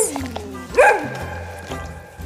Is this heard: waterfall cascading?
no